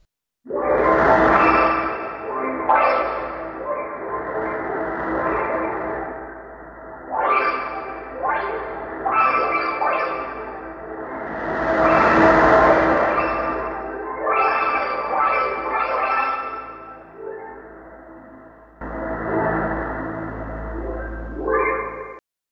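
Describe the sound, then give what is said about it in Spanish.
The space sound of a black hole as it feeds, from an event about 200 years ago: eerie, layered tonal wails that swoop up and down in pitch, almost like drawn-out meows, playing continuously and fairly loudly for about twenty seconds with a low rumble underneath. “escuchemos ahora el impresionante sonido espacial que produce un agujero negro cuando se alimenta.”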